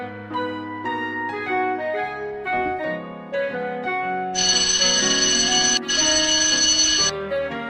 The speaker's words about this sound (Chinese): 铃声响了。该放学了